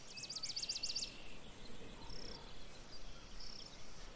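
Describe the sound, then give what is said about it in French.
Crickets chirp in a quick burst of rapid, high pulses, followed by two fainter, shorter trills, over a soft, steady outdoor rumble. “Cet air qui vous porte, ces oiseaux qui vous chantent la vie ces insectes qui, comme une escorte, vous accompagnent.”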